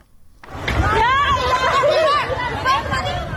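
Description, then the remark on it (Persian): Agitated crowd of flood-stricken people in Dashtiari, Sistan and Baluchestan, shouting and crying out in panic over one another, loud, with overlapping wails rising and falling throughout after a brief quiet start. “این صدای وحشت مردم سیل زده دشتیاری است زنی تا کمر در آب ایستاده و فرو ریختن خانه خشتیگلیش را نظاره می کند”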